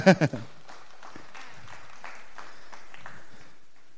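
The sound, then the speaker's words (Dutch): A short burst of voice opens, then a crowd's applause fills the rest, a steady, dense wash of clapping with a few murmuring voices underneath. “Een heel hard applaus alsjeblieft.”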